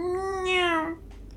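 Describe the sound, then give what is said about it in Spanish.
A single drawn-out meow from a large, fluffy, jet-black Persian cat, about a second long and fairly loud, with a tone that swells brighter in the middle before tapering off into quiet background. “Puedo hablar perfectamente. Dijo con voz de gato.”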